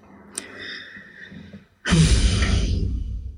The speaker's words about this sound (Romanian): este căscatul care vine și cu un, cu un uh, ghiorât al maț, mațului.